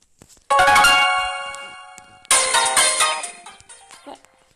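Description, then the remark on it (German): Bright music from the video game Brawl plays with no talking: two loud, chime-like bursts of ringing tones, each fading away, the second kicking in about halfway through before trailing off into softer notes. “Ich glaube, ich spiele euch auch mal kurz die Musik von Brawl ab.”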